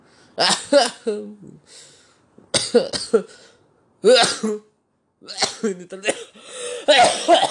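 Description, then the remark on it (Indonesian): A man coughs several times in loud, harsh bursts, with a brief stretch of a man talking between the fits. “aduh bangsat batuk beneran gua”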